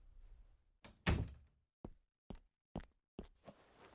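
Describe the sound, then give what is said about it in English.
A man closes a door with one solid thump that rings briefly, followed by four quieter, evenly spaced knocks or steps. No one speaks. “He smiled at her a few seconds, but then let it fade from his face, fixing her with a serious glare as he closed the door.”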